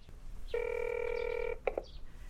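Telephone keypad dialing tones as a number written on a memo is dialed in a public phone booth: one long steady electronic beep held for about a second, then two quick short blips, heard clearly and alone over a faint low background hum.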